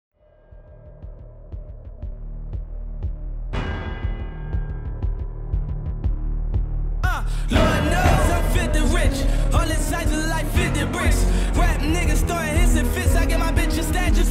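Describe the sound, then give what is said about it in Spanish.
Music from one of the most recent Rocky boxing films opens on a deep, throbbing bass pulse, swells with a bright rising shimmer, then bursts into a loud, dense full-band beat that carries to the end. “vamos con más música, señor Pereira, y aquí daremos un salto pues de 40 años, porque esto se escuchó en una de las entregas más recientes de Rocky.”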